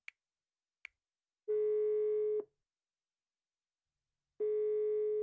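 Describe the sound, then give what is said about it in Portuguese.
Two faint clicks, then a steady telephone ringback tone sounds twice as a person places a call, each long beep lasting about a second with a long silent gap between, clear with no talking. “Ligaste-me por causa disto?”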